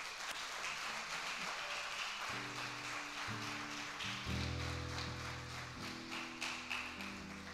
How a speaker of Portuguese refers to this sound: Aplauda Jesus aí se você crê.